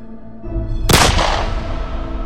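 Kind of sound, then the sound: sound effect, gunshot echoing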